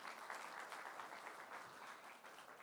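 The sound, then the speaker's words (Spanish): A church audience claps for the Lord in dense, sustained applause, many hands at once filling the space with an even, continuous patter, moderately loud and with no voices standing out. “Dáselo fuerte al Señor, dáselo fuerte.”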